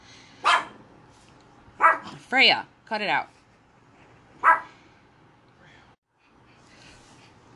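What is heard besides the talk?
dog barking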